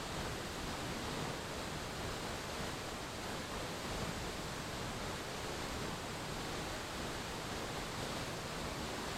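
A waterfall, the Chorrera de San Antonio, rushes in a steady, unbroken roar of falling water, dense and even from start to finish, fairly loud, with no voices or other sounds.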